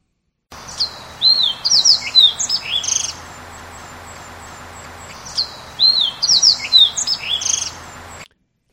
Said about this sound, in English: And next is the fox sparrow, where you will want to listen for the uh, sliding whistles that are in there. Uh, and they don't tend to have the repeated notes at the beginning of each song.